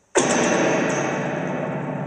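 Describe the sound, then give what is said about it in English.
A spring reverb tank from a guitar amplifier is banged once during a performance, bursting into a loud, crashing metallic boom that keeps ringing and shimmering with a long, wobbly decay with no voices. “so this is a spring reverb from a guitar amplifier. Okay. Um, sometimes while I'm performing, I'll give it a bang.”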